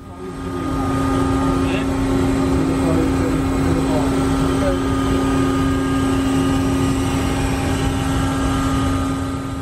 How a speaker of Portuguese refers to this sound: aquilo que estamos a ver é uma operação de lançamento do ROV para a água, para fazer um mergulho